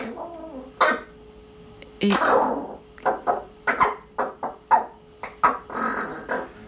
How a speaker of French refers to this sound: Il y a beaucoup de cris de gorge, beaucoup de nuances, beaucoup de jeux, et ils sont très habiles vocalement, hein, les, les, les corvidés, les corbeaux freux